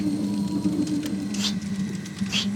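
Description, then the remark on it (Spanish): Someone imitates the sound of rotating lights with their voice: a steady, low droning hum held throughout, with two brief hissy swells rising over it about a second apart. “y, y están haciendo el sonido que, hacían las luces al girar.”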